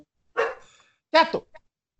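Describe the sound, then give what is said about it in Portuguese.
A dog named Goku barks twice, a short sharp bark followed about a second later by a doubled bark, loud, with a faint yip trailing after. “O nome do cachorro é Goku?”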